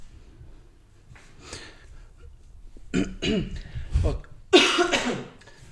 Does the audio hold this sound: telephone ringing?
no